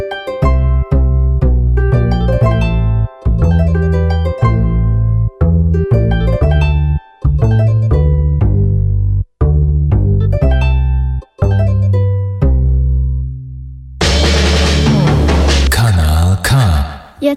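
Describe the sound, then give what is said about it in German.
A pop song plays loud, with steady pulsing bass notes under layered sustained chords, briefly pausing between phrases before swelling into a denser, brighter section near the end. “gerade gehört ihr das Lied … von der …”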